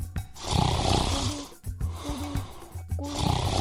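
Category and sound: sound effect, snoring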